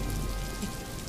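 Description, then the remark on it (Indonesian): Steady pattering rain falling on a surface, a dense, continuous wash of fine droplets at moderate volume with no voices. “itu suara rintik hujan.”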